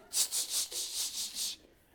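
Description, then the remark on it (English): A voice imitates the rattling hiss of a steaming pot: six quick, breathy hissing bursts in a steady rhythm, fairly loud, then trailing off into quiet. “I thought she had a rattlesnake in the pot.”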